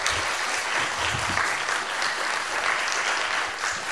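A steady burst of audience applause, dense overlapping claps sustained for the full few seconds at a fairly loud, even level, with no voices standing out.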